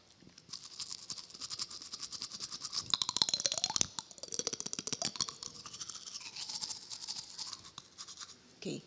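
Toothbrush bristles are flicked in a quick, steady rhythm close to the mic, making a dense scratchy patter with brief pauses, like a tiny percussion groove played alone.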